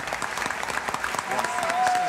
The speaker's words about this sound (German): Begeistert klatschen die drei, springen von ihren Sitzen und winken.